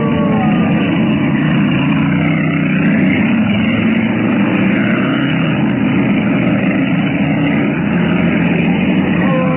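vehicle, car engine driving

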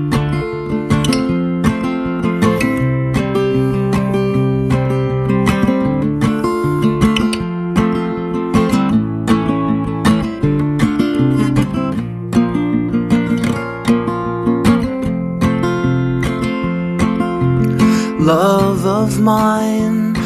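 music playing

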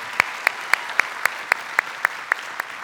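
crowd, church audience applauding

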